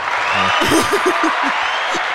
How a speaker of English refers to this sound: Hey, where's the applause?